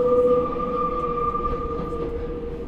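Steady rumble of a moving metro car from inside, with a sustained high whine running over low rattling and rolling noise, loud and continuous throughout.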